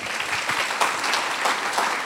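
An audience applauds the Lord in the morning, steady dense overlapping claps forming a continuous, fairly loud wash of sound with no pauses, and no one speaking over it.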